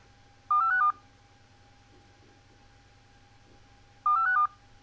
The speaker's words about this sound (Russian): Алло, у нас пропала связь. Ну что ж, у нас оборвался телефонный звоночек, что-то с интернет-соединением. Вот, подкачал телеграм, но ничего страшного.